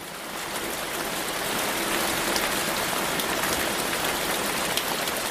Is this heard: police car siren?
no